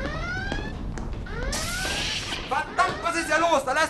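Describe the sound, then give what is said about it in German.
A spaceship red alert alarm blares with repeating rising electronic whoops, fairly loud, before voices start talking over it. “Was ist das? Roter Alarm!”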